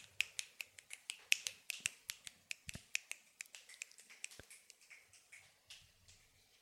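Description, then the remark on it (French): A crowd of fingers snapping by the dozens and hundreds, sharp dry clicks overlapping in an irregular patter, strong at first and gradually thinning and fading toward the end, with no voices. “Et vous entendez des claquements de doigts, par dizaines, par centaines.”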